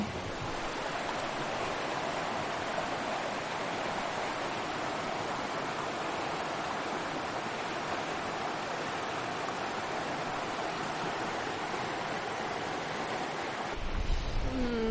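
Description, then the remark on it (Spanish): Sea waves wash onto a beach in a steady, broad roar of surf that continues without pause, with no voices, and the sound shifts slightly in the last second. “Wild Track, mar. Playa, más bien.”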